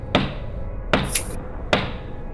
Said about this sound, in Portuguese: Tu bate na porta.